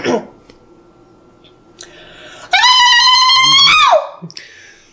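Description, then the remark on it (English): A loud, sustained high-pitched vocal yell with a rapid warbling trill, lasting about a second and a half before dropping off sharply; a voice imitating the battle yell of Xena, Warrior Princess, piercing. “Do you want to do a Xena yell for everybody?”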